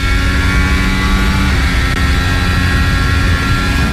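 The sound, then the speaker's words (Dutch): A Formula 1 car engine roars steadily, heard onboard Esteban Ocon's car running behind Yuki Tsunoda, a loud, dense, high-pitched whine with constant intensity and a slight shift in tone partway through. No one speaks. “Op wordt geluid in dit geval bij Esteban Ocon vandaan achter Yuki Tsunoda.”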